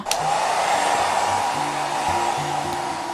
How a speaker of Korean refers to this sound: 자기야, 내가 인터넷 찾아봤는데 저 안쪽도 다 뜯어서 청소해야 된대. 드라이기로 안에 생긴 얼음도 다 녹이라는데? 별 수 있나요? 다 뜯고 녹였죠.